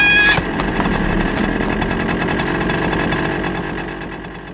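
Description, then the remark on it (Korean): A motorcycle engine roars close by, its throttle rising sharply at first, then holding a steady, rumbling growl that slowly fades a little toward the end, as a suspect rides it straight at the speaker in a dead-end alley. “코앞까지 달려온 오토바이를 향해 골목 입구에 있던 쓰레기통을 걷어차고 허공으로 뛰어오른다.”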